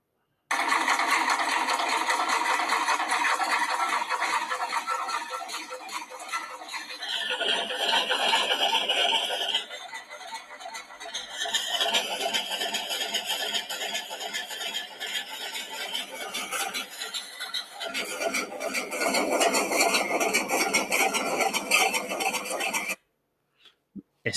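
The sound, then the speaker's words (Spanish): An Opinel ferrule-making machine runs steadily, a rapid, even stream of sharp metallic stamping blows, each blow a finished ferrule dropping into a basket, with a clattering, rattling undertone, shifting rhythm and tone a few times before stopping abruptly. “Venga, que este es el sonido que hace la máquina de, de hacer virolas de Opinel.”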